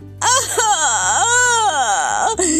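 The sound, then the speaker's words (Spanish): A voice imitates a bear cub crying, a continuous wailing sob with rising and falling pitch that lasts a couple of seconds, loud. “Y se puso a llorar desconsoladamente. El llanto de Osito despertó a recitos de Oro”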